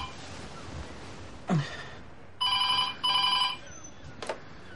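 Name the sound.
telephone ringing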